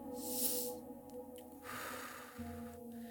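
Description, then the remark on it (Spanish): A deep, forceful inhalation drawn in sharply and fully through the nose and mouth during a guided breathing exercise, loud, followed by a second airy pull of breath, with no talking. “completamente hacia adentro.”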